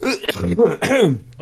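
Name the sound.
sneeze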